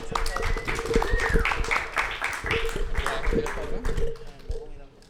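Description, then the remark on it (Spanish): An audience applauds: dense, steady clapping runs throughout the five seconds, mixed with overlapping crowd chatter and a faint sustained tone, before tapering slightly at the end. “Un aplauso. Llega más gente.”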